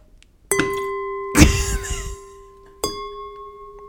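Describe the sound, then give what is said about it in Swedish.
A glass is struck like a singing bowl, giving a clear ringing tone that sustains and slowly fades; a heavier knock lands in the middle, then a second strike rings out again. “Vi hade inte någon klangskål här, men vi gjorde med ett glas.”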